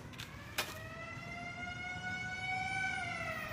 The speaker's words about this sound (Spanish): Lo que suena es la alarma de la fábrica la alarma que se escucha en todo Vicálvaro, en competencia con las campanas de la iglesia y que avisa no solo a los obreros de los cambios de turno.